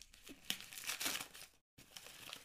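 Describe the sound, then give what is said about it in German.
Crinkly rustling and ripping of double-sided gift wrapping paper, gold on one side and star-patterned on the other, being torn open, with bright crackling bursts, a brief silent gap, then more paper crumpling. “Das Papier ist echt hübsch, das will ich eigentlich mhm. gerne aufheben. Ja, ist jetzt zu spät, ne?”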